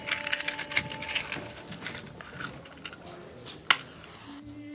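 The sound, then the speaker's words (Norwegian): A match is struck by the housewife to light a stearin candle in the dark Berbestua, which has no electricity: a run of dry, scratchy rasps, then one sharp, bright flare, followed by a soft, steady hiss. “Det er så mørkt her i Berbestua at vi må, vi må tenne litt lys.”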